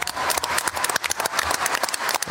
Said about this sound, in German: Ja, Applaus bei der Weltnaturschutzkonferenz in Montreal in Kanada. Fast 200 Staaten der Welt haben da ein Abkommen geschlossen, das als großer Erfolg gilt für den Naturschutz und den Artenschutz.